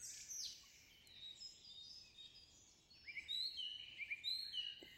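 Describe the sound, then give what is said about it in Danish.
Several birds chirp and tweet in quick, scattered high-pitched calls as they fly around on a warm, sunny day. The calls are fairly soft, with a busier flurry of chirps toward the end over a faint steady background hiss. “Fuglene elsker også det varme vejr. De flyver rundt og leger fangeleg.”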